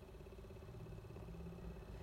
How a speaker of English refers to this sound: Sitting and listening while the sun sets, there is a siren in the distance, accompanied by the violent tear of a straining engine. It sounds normal. A remote emergency is part of the everyday soundscape of a city.